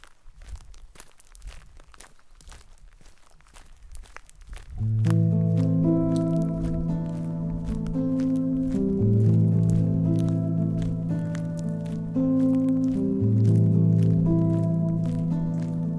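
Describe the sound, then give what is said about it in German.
Steady footsteps squish and crunch along a path at the forest edge of the Brühlberg, a hill in Winterthur, alone at first; after a few seconds a sustained, tonal musical passage swells in and carries on over the continuing steps. “Auf dem Weg, gerade am Waldrand vom Brühlberg.”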